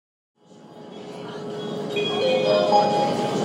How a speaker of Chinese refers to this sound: 片段四：二零一六年至二零一九年地铁播报声。